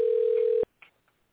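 A telephone rings in the background of a caller's line during a group call: one loud, steady electronic tone holds for about half a second and then cuts off abruptly, followed by a couple of faint, soft noises. No one speaks.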